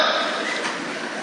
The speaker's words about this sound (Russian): Что это за звук? А, это вы испугались? Ну, так и запишем. Реакция кишечника на испуг громкая.